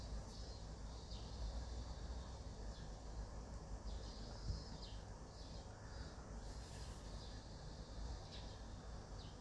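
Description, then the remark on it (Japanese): Faint outdoor ambience in Tokyo: birds chirp intermittently over a steady wash of cicada drone, with many minmin-type cicadas, and low background rumble, with no voices present. “外の音聞こえてますかセミとか鳥とかの声聞こえますかセミの声が違うんだよな今今東京に住んでるんですけど”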